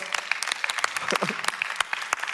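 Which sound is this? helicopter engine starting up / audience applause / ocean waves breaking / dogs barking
audience applause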